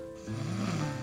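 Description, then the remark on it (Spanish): A single loud snore: a low, rattling inhale that swells after a brief quiet moment and carries on to the end, with no talking over it. “Sí, madre, Quizás preferiría que lloraras en vez de que roncaras, pero...”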